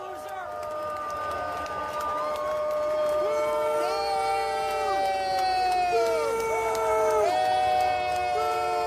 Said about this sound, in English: Yeah, Anthony Fauci throwing out the first. The whole place erupted in booing.